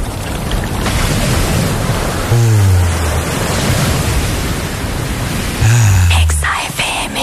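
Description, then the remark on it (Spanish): Loud, steady wash of surf breaking, a constant roaring hiss of waves on a beach, with two brief low droning sounds rising over it partway through. “Ah, sí, escucha la playa, escucha la playa.”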